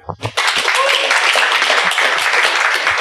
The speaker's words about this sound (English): Let's have a big hand for Jeff.